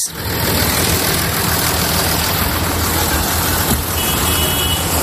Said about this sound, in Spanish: Estoy en Puebla de Sanabria, en el norte de Zamora, y aquí hay una gran tractorada que está cortando la parte central del pueblo, de tal manera que tenemos que ir muy despacio.